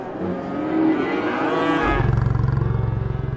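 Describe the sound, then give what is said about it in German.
A horned cow lets out a loud, drawn-out moo that drops into a low, rough, pulsing bellow, with other restless cattle implied by the tone and no talking; nervousness is spreading among the cows. “stolze Gehörnte hat ihre Artgenossinnen angesteckt. Nervosität breitet sich aus.”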